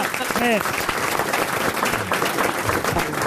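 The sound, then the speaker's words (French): An audience at the RTL radio studio applauds Marc-Antoine Lebré steadily for a few seconds, a dense, even patter of clapping, with a brief rising whoop from someone in the crowd near the start. “Vous pouvez applaudir Marc-Antoine Lebré, déjà.”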